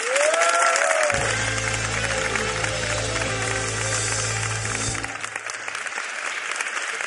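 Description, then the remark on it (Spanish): Loud, dense studio audience applause that rolls on steadily for about seven seconds, opening with a brief rising whistle, a low droning tone beneath, then easing slightly at the end, welcoming a guest on a TV show. “Pues por favor, un aplauso nunca visto para la propia justicia.”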